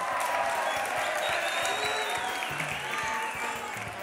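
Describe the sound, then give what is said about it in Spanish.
An audience claps steadily for everyone after a timed group quiz question, a dense, continuous wash of many hands with a few faint voices mixed in, holding fairly even in loudness for the whole stretch. “Un aplauso para todos.”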